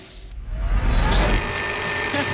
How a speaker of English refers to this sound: The phone again? No!